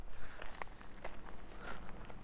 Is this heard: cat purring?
no